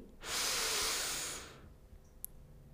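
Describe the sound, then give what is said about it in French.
A single long, deep breath drawn in, a steady airy rush lasting over a second before fading into quiet, with one tiny click afterward. “Inspirez profondément pour vous dynamiser.”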